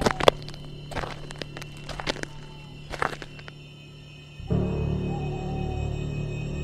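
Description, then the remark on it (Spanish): Irregular, hollow thumping footsteps of someone running on top of a train car clatter overhead for a few seconds, then fade as a low, steady mechanical rumble swells up and continues to the end. “Eran esos malditos pasos de nuevo.”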